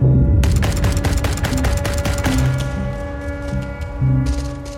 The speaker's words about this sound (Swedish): Det är så här, dunk, dunk, dunk, dunk, dunk. Sån här tung kulspruta som de låg och sköt över oss.